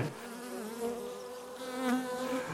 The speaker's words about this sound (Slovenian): No, in so se približevali tej hiški, se izkaže, da je to čebeljak, ker je ta zelo hitro gotov, ker so se na njega usule čebele.